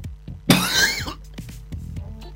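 A single harsh, chesty cough from a person with a congested chest bursts out, followed by a quieter raspy breath and faint rustling.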